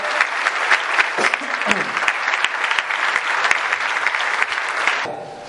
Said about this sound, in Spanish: Un aplauso para mi esposa que estaba organizando todo.